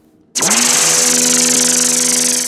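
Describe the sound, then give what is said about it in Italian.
A circular saw sound effect from an iPad app starts up when its button is pressed, held near the microphone, running at full speed, a loud, steady motor whine with a harsh buzzing hiss that holds without pause until the end. “Si compone di una sega circolare e un pulsante per accenderla e spegnerla.”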